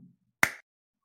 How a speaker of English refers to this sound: ooh, I heard it slaps. So like. Clap, dude.